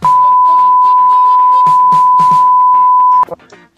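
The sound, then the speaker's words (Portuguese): A loud, steady censor beep holds one high pitch for about three seconds over someone talking, then cuts off abruptly as the voice trails on briefly. “É, vai, começar bipando tudo aí já, né?”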